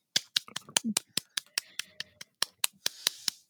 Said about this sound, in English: Golf clap.